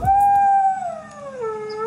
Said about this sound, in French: Après la mutation vestimentaire arrive la naissance de …, en référence à son chien, Lindy, qui selon lui hurlait à la mort à chaque pleine lune.